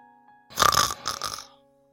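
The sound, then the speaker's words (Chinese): A voice imitates the snoring of a sleeping monster in a children's story with two rough, rattling snorts in quick succession, the first louder and longer, the second shorter and slightly softer, with no talking around them. “在他打呼噜的时候，所有的黑暗慢慢的从他的身体里流出来，一点一滴的回到了原来的地方，最后。”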